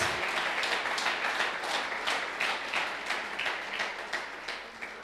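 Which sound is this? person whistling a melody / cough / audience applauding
audience applauding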